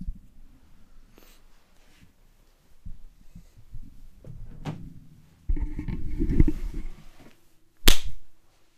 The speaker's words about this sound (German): Und mit dieser Klatschparade herzlich willkommen